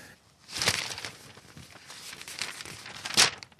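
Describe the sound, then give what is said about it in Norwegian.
A media researcher in Oslo leafs through a newspaper: paper rustles and crinkles, with two sharper swishes of pages being turned about two and a half seconds apart, and softer handling noise in between. No one speaks. “I Oslo sitter medieforsker Sigurd Høst og blar i avisen.”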